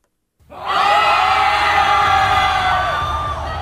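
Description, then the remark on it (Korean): A crowd of men, Israelite soldiers attacking the city of Ai, lets out a loud, sustained battle cry, many voices roaring together at once and holding the shout for about three seconds before easing slightly. “이스라엘을 쫓 아이성 사람들은 자신들 뒤쪽에서 들리는 함성 소리에 뒤를 돌아봤습니다.”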